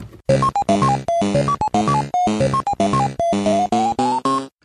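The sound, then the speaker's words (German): A short, bright jingle plays on its own: a brisk run of bouncy synthesized notes in repeating melodic phrases, loud and up front, ending after a few seconds. “Ich spiele jetzt einen kurzen Jingle ein und dann hört ihr direkt, wie es weitergeht.”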